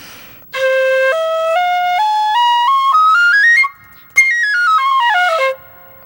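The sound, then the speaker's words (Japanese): A bamboo Hiroshima kagura flute, played in the local style with the right index finger held down throughout, plays its scale alone, stepping upward note by note in a steady run, pausing briefly, then descending quickly back down, bright. “右の人差し指をですね広島の神楽部はずっと押さえたまま吹くという非常に変わった吹き方をするんですね。”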